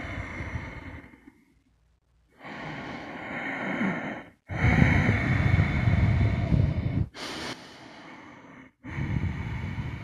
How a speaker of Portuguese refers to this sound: Sincronize na sua respiração com a minha.